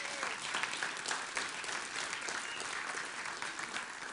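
Steady applause from an audience fills the room, a dense patter of many hands clapping at an even level for several seconds, with no distinct voices standing out.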